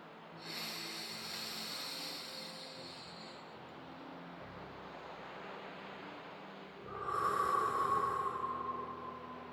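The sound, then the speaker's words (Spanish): Two long, airy deep breaths separated by a pause. The second breath is louder and carries a faint whistling tone. No one speaks. “Respiro profundamente”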